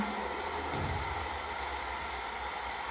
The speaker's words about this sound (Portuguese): Você vai vivenciando essa experiência apenas se permitindo ficar aí e contemplando a chuva